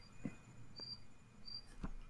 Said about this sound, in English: Thank, thank you, crickets outside my window. You're helping me. See, we got an audience.